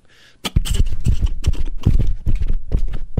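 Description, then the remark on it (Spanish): The hooves of a riderless horse clip-clop in a brisk, steady rhythm, loud, after a brief quiet hiss at the start. No voices are heard. “caballo iba por la, por la comida, por el lonche.”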